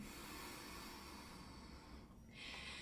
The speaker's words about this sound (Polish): to po prostu oddychamy nosem. Czyli robimy tak i do brzucha. I trzymamy tam chociaż kilkanaście sekund i wydech.